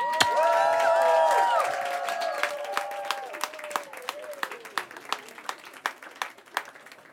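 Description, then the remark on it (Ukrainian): An audience bursts into loud applause mixed with high cheers and whoops to welcome a musician onto the stage at a mournful broadcast event, then the cheering fades and the clapping thins out to scattered, separate claps by the end. “Цьомайте його оплесками.”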